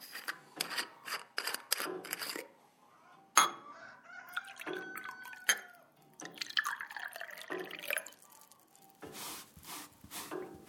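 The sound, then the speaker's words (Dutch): Jenever being poured into small glasses, a run of quick splashing trickles and clinks repeating in short bursts, with no one speaking. “Eh, kan ik jullie dienen met een borreltje?”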